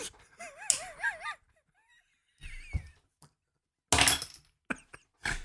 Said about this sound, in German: Bin mit dem Stuhl verrutscht. War das, ja, war das der Stuhl? Ja.